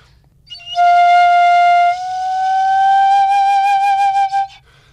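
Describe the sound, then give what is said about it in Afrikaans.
A single sustained flute note, clear, that slowly bends upward in pitch partway through as the player gradually lifts a finger off the note, then takes on a pulsing flutter before cutting off. No voices. “dan kan jy jou vinger so geleidelik van die noot afvat”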